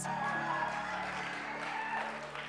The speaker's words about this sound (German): Come on, Applaus.